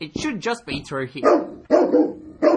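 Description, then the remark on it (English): A man speaks briefly, then Jesse, a large Doberman Rottweiler Pitbull cross trained as a pet therapy dog, erupts with three loud, deep, drawn-out barks, each burst rough and forceful. “Yes, it's a Doberman Rottweiler Pitbull cross.”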